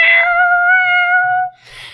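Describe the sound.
Someone imitates a cat with a single long, drawn-out meow, loud, steady for about a second and a half before trailing into a short breathy hiss.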